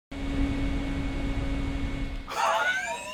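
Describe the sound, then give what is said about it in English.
A small USB-powered rack fan roars loudly and steadily, a dense rushing whir with a constant humming whine, before it abruptly gives way to a brief, warbling, voice-like sound near the end. “This is my new rack fan.”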